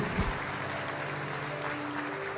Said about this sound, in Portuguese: Se tu entendeu, aplauda o Senhor. Se não entendeu, aplauda igual, porque Ele é digno.